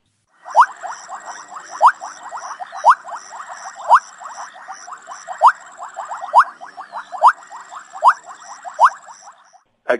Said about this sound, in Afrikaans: Maar kom ons luister na daai vleipadda. Dit is die borrel vleipadda, Cassina senegalensis. Die borrel vleipadda. En luister bietjie hoe klink die borrel vleipadda.